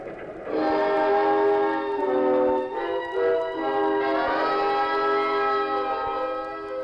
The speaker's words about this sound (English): Are you ready? The train's going too fast.